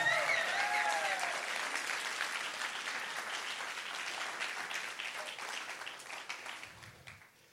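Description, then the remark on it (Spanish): An audience breaks into sustained applause for the Lord during a sermon, a dense wash of many hands clapping that stays steady for several seconds before thinning out and fading toward the end. “Si alguien lo cree, que le dé un aplauso al Señor.”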